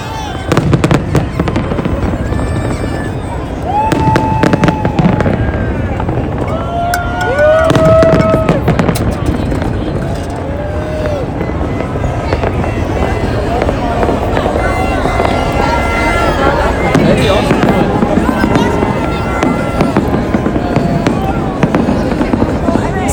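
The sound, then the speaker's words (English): Fireworks crackle and pop outdoors in dense, irregular bursts, with whistling rising tones and booms over a steady background rumble, continuing throughout. “Also, for some reason, it's oh here we go, more fireworks.”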